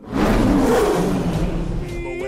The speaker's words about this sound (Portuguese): 25 anos depois do clássico de animação da Disney, O Rugido do Rei Leão ouve-se num filme em imagem real.